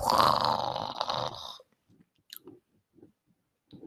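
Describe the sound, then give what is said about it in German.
A beatboxer makes a loud, gritty throat bass, a drawn-out throat clearing formed in the throat rather than at the palate, lasting about a second and a half. It then breaks off into a few faint mouth clicks and breaths. “Und zwar ist das einfach nur ähm, Räuspern in lang gezogen.”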